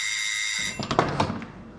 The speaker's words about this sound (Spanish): En ese momento suena el timbre.